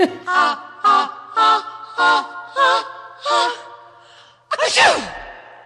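A loud sneeze comes after six evenly spaced, voiced 'ah' sounds that build toward it. It ends in a sharp, breathy burst with no talking.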